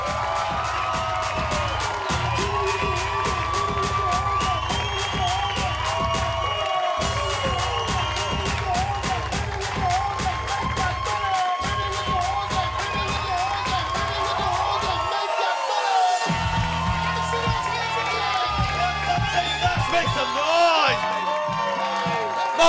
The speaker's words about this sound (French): Mesdames et messieurs, applaudissez. Je veux qu'on l'accueille comme une rockstar. On applaudit plus fort que ça. On crie